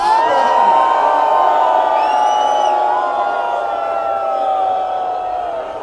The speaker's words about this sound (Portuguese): Trabalhadores e trabalhadoras, estudantes unidos na Avenida Paulista contra a reforma da Previdência e contra o corte dos recursos públicos na educação pública. Uma vaia, uma vaia muito grande para o ministro da Educação.